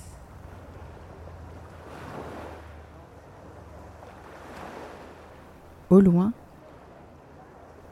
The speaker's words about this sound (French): le ronflement des moteurs.